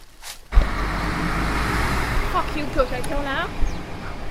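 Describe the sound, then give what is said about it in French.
A Coca-Cola delivery truck rumbles out of a squat, its broad engine and road noise starting abruptly and holding steady, with faint voices briefly audible over it. “Un camion Coca-Cola vient de sortir du squat.”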